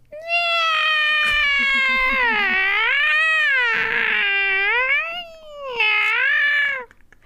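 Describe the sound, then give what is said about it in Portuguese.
A person imitates a cat yowling in heat: long, loud, wavering wails rising and falling in pitch, with a brief pause before a final drawn-out cry. “imita tá gato miando?”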